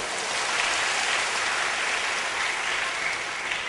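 Steady applause from an audience applauding themselves at the speaker's request, many hands clapping in a dense, even wash of sound that holds at a constant loudness throughout, with no voices heard over it.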